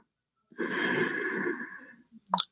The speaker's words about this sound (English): It would go something like this breathing in, breathing out. Nine. Breathing in,